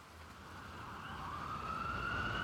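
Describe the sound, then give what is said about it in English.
A police siren wails with a rising, sweeping tone that swells steadily louder as it approaches, over a low rumbling street background. “The sirens make them both stiffen.”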